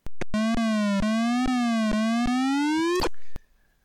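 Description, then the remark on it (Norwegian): A video game grappling hook effect from a platform game, the hook being swung around: a buzzy electronic tone that slowly rises in pitch, punctuated by evenly spaced clicks, loud, ending abruptly after about three seconds. “det er for en pestpikelyd.”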